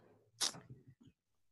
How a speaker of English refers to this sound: My dog's having a nightmare. Wake up. You're awake.